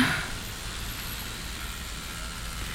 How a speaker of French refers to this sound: Eh ben voilà, me laisse pas passer surtout. Tu connais pas les passages piétons. Ça me saoule toutes ces bagnoles.